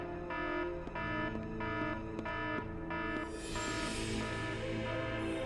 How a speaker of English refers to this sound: Stock alarm sound.